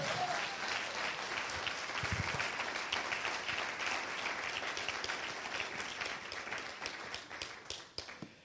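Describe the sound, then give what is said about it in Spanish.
An audience loudly applauds the Lord, a dense, sustained wash of many hands clapping that holds steady for several seconds before thinning out at the end. “si usted lo desea y lo cree, denle un aplauso fuerte ahora al Señor.”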